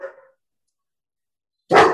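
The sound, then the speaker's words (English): A dog barks twice at a delivery at the front door: a short, softer bark trailing off at the start, then a long pause of silence before a loud, sharp bark. No one speaks. “And so the barking is not going to end because he's right.”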